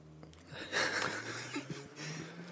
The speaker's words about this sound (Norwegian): må nyse. Dette skal med, sant?